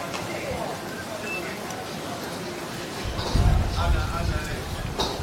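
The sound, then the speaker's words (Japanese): Busy crowd chatter at an outdoor hawker centre, a public food court where people are eating, fills the whole clip. It is a steady murmur of many overlapping voices with occasional clinks, growing louder in the second half. “こんなガヤガヤしたところではお送りさせていただいております、えー、ホーカーっていうのは今ホーカーでご飯を食べてるんですけどもホーカーっていうのは大衆の、えー、食堂みたいなすごく親しみやすい、え国民の食堂みたいな感じですかね屋外なので鳥が鳥が入ってきてしまうんですね。”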